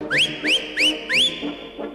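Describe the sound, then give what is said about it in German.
Four quick rising whistles, sharp and piercing, sounded in a steady rhythm over a busy, muffled background of music or crowd noise, with softer echoes trailing after; the famous Berlin whistles that accompany a waltz at the six-day cycling race in the velodrome. “Heute geht es um den berühmtesten Pfiff Berlins, eben diesen hier.”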